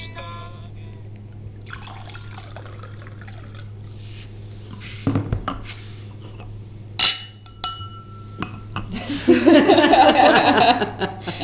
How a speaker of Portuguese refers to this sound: brindar com copos vazios já faz um som diferente.